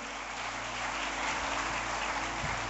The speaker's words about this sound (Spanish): Muchas gracias por ese aplauso y por ese saludo pero si es para Dios ese aplauso, déselo más fuerte.